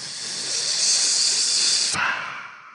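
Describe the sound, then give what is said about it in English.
A voice makes a long, steady hissing rush like a riser effect, holding for about two seconds before cutting to a softer, breathier tail. No other sounds accompany it. “So risers are essentially like the audio that can lead up to a transition or like a moment that needs to be punctuated.”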